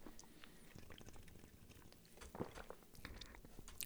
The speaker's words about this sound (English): take a sip of my Bravus.